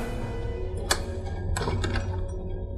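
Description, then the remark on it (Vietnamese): A door opens: a sharp click or knock, then a short run of rattling, thumping clicks over a steady low background hum, with no voices. “bất ngờ cánh cửa được mở ra”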